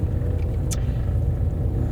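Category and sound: vehicle, car interior rumble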